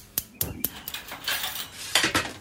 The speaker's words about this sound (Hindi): gas पर चढ़ाते हैं कढ़ाई और उसमें डालिए सरसों का तेल